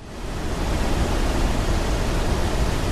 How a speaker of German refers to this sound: Ja, einer der größten dort ist der Swandersfossen Wasserfall. Er liegt in der Nähe von Soda und er gießt sich dort in den Soda Fjord. Er hat mehrere Stufen und eine Gesamtfallhöhe von 180 Metern.